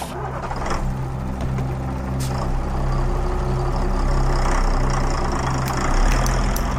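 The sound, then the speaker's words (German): A full Flixbus coach bus travelling to Kyiv rumbles steadily with a deep, droning engine idle, broken by a few short bursts of air-brake hiss. No one speaks. “Der Bus fährt wieder und er ist voll.”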